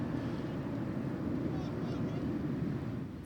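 An airplane flying overhead makes a steady, low rumbling roar that fills the whole stretch without letting up, heavy in the bass and fairly loud, with a slight dip right at the end.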